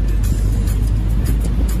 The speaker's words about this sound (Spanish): en un vehículo antiguo increíble. De 1953. Donde vamos a conocer Toda Habana.